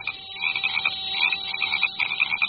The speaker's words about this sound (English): What with frogs and insects, my swamp was a real noisy and busy place after dark.